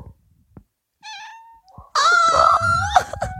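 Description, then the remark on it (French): A cat meows close to the microphone: a short, thin mew followed after a pause by a longer, louder, strained yowl. No one speaks. “Je suis désolée, mais je vais juste couper tout ce que tu dis et ne mettre que ton chat.”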